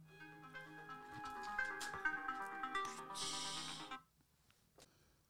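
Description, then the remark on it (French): A phone rings with a bright, melodic electronic ringtone that plays steadily for about four seconds and then cuts off abruptly, leaving near silence. No one speaks. “Désolé, c'était le coup du téléphone.”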